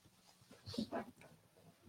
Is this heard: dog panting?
yes